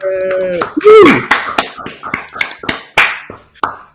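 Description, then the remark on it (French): Sparse, rhythmic clapping from a few people, steady for several seconds, with a brief cheer or whoop near the start, as a speaker representing Nord-Pas-de-Calais is introduced. “sous vos applaudissements.”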